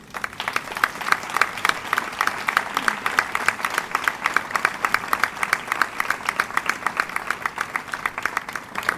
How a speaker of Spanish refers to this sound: Entonces este premio, por eso le digo que estamos haciendo historia, esta noche va a estar apadrinado por dos figuras del cante y de la guitarra, como son don Antonio Fernández Díaz Fosforito y don Paco Cetero, que les pido un gran aplauso a ellos.